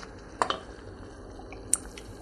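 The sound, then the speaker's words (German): Soft wet pops and blips from a sauce with a little milk added, simmering in a pan, a few sharper bursts over a low steady bubbling hiss, fairly quiet, with no talking. “Ihr hört die Soße.”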